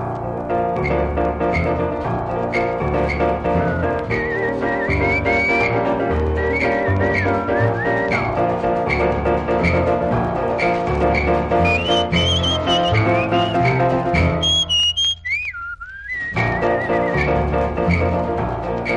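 A bright whistled melody rides over a full, bouncy band with piano and drums, the tune weaving in short rising and falling phrases, briefly dropping to whistling alone near the end.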